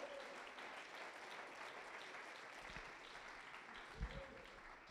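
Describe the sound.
An audience applauds steadily, giving applause to God, dense clapping from many hands, with faint voices and a brief thud mixed into the sustained applause.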